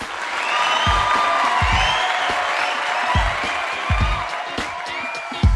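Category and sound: crowd, audience applause and cheering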